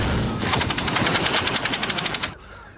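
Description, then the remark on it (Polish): A small fan whirs to life with a rapid, rattling stream of clicks for about two seconds before cutting off abruptly, fairly loud, with no one talking. “ja chciałem tylko powiedzieć, że Duke dla mnie jest jak ten wiatraczek. On mniej więcej tak szybko się rozpędza”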